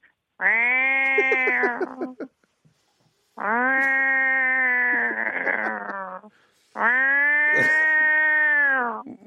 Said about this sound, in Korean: 일단 좀 온순한 고양이부터 예, 할게요. 온순한 고양이 들어볼게요.